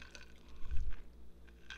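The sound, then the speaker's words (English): A quiet sip of tea from a cup, with a soft wet slurp and a faint swallow, followed by a couple of small liquid clicks. No one speaks. “a simple example of impermanence is I'm drinking this tea right now.”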